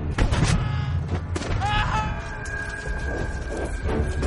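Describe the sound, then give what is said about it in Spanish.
A soldier steps on a land mine: a loud, booming blast with heavy low-end rumble, followed by a ringing, sustained tone and scattered crackling and thuds as the noise lingers. “Pisa una mina.”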